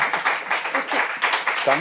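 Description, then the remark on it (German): An audience applauds a band with steady, dense clapping that rises and falls in rapid bursts, with a few voices mixed in toward the end. “Applaus für ….”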